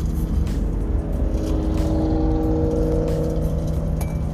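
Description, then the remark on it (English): A loud Ford Mustang roars by at speed, its deep, rumbling engine drone filling the whole clip with steady low tones and a faint rising whine. No one speaks. “That's a loud Mustang passes by, speeding, lucky from the state of Virginia.”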